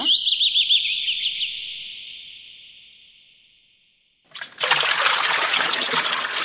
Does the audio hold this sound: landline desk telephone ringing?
no